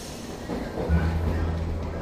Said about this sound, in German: setzt sich in die U-Bahn Richtung Central Park, wo sich die Ziellinie befindet.